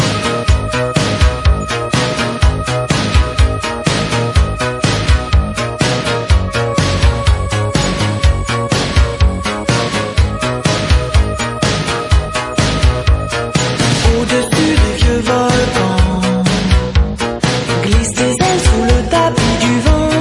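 A synth-pop song plays at full volume for the whole stretch, with a steady driving beat, bright keyboard tones and a dense, loud mix, no talking over it.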